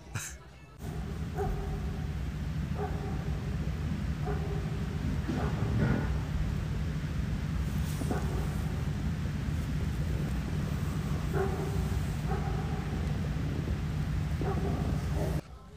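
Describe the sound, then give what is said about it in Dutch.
A dog at a campsite at night barks in short, spaced-out bursts, a bark or two every few seconds, over a constant low droning hum that fills the background throughout. “Klonk lekker, hè, die hond?”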